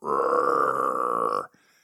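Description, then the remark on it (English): A person imitates Tuh growling as he gets mad: one loud, rough, sustained vocal rumble lasting about a second and a half, steady throughout, then cutting off abruptly into near silence. “He starts to growl,”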